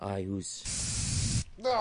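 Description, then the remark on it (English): A single sustained hiss of a germ-killing aerosol spray lasting under a second, fairly loud, between bits of a person talking. “I've got a spray, a spray here to kill the germs whenever I”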